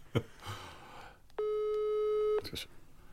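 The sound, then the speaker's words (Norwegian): A telephone ringing tone sounds once while a call is placed to someone at Vang kafé: a steady, buzzy mid-pitched electronic tone lasting about a second. Brief rustling and handling noises come before and after it. “Ja, Jeg skal slå nummeret her.”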